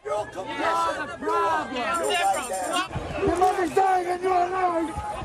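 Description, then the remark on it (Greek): Trump supporters and immigrant-rights activists clash outside the mayor's residence in New York, many overlapping voices yelling loudly and continuously, with rising and falling cries and chanted slogans over a dense background of agitated chatter. “Οι οπαδοί του Τραμπ έρχονται στα χέρια με του ακτιβιστέ και φωνάζουν συνθήματα.”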